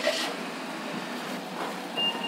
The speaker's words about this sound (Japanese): ちょっとここに足を蹴り込んでもらうとスライドドアが開くんですよ。えー、ちょっとやってもらっていいですかこの車体の下に足をスッと入れればいいんです